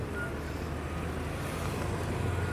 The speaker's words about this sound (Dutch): Even wachten op die auto. Waar gaat die naartoe?